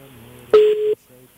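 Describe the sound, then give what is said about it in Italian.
A single loud electronic telephone tone, like a dropped-call beep, cuts in for under half a second as a phone call to a director's phone is lost, with faint voices murmuring before and after it. “Ecco, abbiamo, abbiamo perso adesso lo recuperiamo. qualcosa al telefono del direttore, lo recuperiamo subito”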